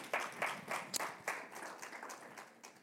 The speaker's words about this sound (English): If you receive that today, come on, give Jesus a praise clap if you receive it.